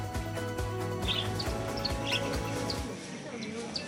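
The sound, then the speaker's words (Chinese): Short, high-pitched chirps from small pet birds in a pet shop pop up repeatedly and irregularly over a steady, dense lower background sound that continues throughout. “走进宠物店，五彩缤纷的大小鸟儿，可爱模样令人融化。”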